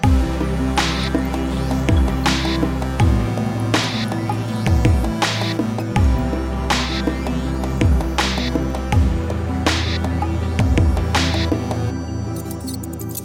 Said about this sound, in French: Il y a bien longtemps, c'est-à-dire euh, jusque dans les années 80-90 environ, une imprimante d'ordinateur, c'était ça. L'impression matricielle, des petites aiguilles frappant un ruban encreur dans un raffut infernal.